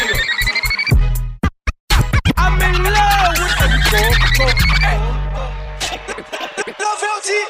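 A DJ scratches rapidly on a turntable, cutting back and forth over a booming beat, with sharp chirping stabs and a steady high electronic tone layered in, loud, fading out near the end.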